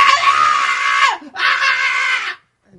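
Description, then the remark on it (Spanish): A woman in her twenties screams loudly on a Delta Airlines flight from Raleigh-Durham to LaGuardia Airport, in two long, shrill bursts separated by a brief gasp for breath, piercing, with no other voices or background noise around her. “Gritando y diciéndole que tenía que morir.”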